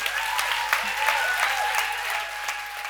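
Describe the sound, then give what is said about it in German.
Sustained applause from an audience, a dense, steady clatter of many hands clapping for the full length, fairly loud and even, with no voices standing out. “Vielen Dank. Applaus”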